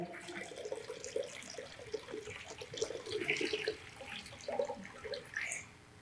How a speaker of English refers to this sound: Okay, pick this up. It's heavy. You might need two hands. Okay, and into the bowl. Yep. Keep going. There's a lot of water in there.